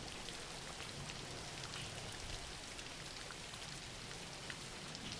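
Steady rain falls continuously, a dense wash of patter with scattered droplet ticks, fairly faint and even throughout, with no voices.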